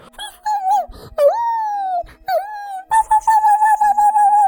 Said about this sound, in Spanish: Una noche de verano, mientras Aroa vigilaba, observó un movimiento muy extraño y comenzó a ladrar y a aullar muy fuerte.